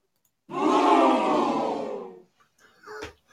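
crowd booing sound effect

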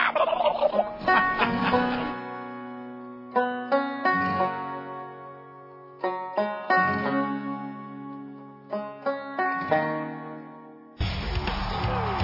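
wild turkeys gobbling

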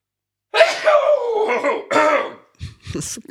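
sneeze

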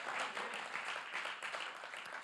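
audience clapping hands

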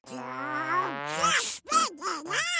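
child yawning

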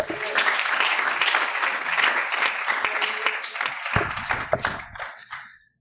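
audience applause in church

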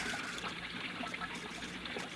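water trickling

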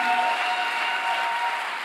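audience applause in church

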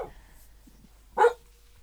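dog barking

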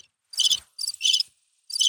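cricket chirping sound effect

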